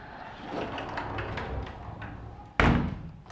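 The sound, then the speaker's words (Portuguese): Soft shuffling and handling noises, then a single loud thud near the end as a window or door is pulled shut, followed by a brief rumbling tail. “Tá, você quer que feche? Porque tem uns cachorros latindo”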